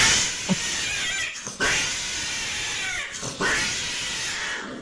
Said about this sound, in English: They already know what cat passion noises sound like.